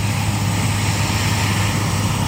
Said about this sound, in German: Die Schweizer Luftwaffe hat mit Helikopter eine Übung gezeigt. Die Soldaten transportieren mit der Hilfe der Super Pumas ein paar Verwundete.